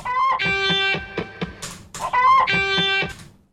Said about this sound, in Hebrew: עכשיו, השרבוט הזה, … המפיק, כל כך השתדל לעשות את זה איכשהו שיעבוד כקונספט, ששימו לב, הוא מקשר את זה במין קרקור תרנגולת.